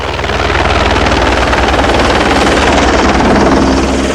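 A helicopter's rotors chop steadily and loudly, a continuous rapid thudding with a dense engine roar filling the whole stretch, unbroken with no voices.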